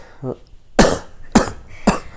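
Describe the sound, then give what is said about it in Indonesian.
Three harsh, fairly loud coughs spaced about half a second apart, preceded by a brief throaty vocal sound. “aduh lagi batuk-batuk ya iya anjing minggu iya.”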